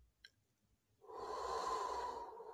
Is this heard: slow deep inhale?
yes